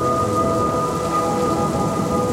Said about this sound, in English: Just as he had suspected, it had poured. There was thunder, lightning.